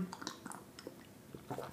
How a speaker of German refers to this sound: Ich schlürfe meinen Tee, ihr Lieben